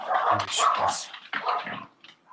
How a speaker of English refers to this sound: Loud dog pack.